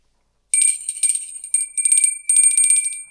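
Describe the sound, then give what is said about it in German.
A small hand bell jingles in quick, bright shakes, ringing in several bursts with brief pauses between them, fairly loud, with no voices. “Ah, jetzt gucke ich gerade nach meinem Glöckchen aus der Folge neulich.”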